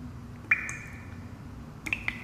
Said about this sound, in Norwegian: Si meg, drypper det her? Hæ? Nei, jeg sier at jeg syns jeg hører en dryppelyd. Hæ? Der var det en. Hører du det ikke, du, eller?